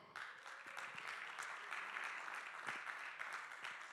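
Steady applause from an audience, a dense crackle of many hands clapping at a constant loudness for several seconds, with no voices standing out.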